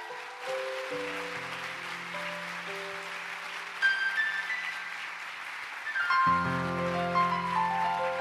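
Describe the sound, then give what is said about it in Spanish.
A church audience applauds the Lord steadily for several seconds, a dense wash of clapping mixed with sustained keyboard chords that swell and shift, growing fuller near the end. “Dale un fuerte aplauso al Señor.”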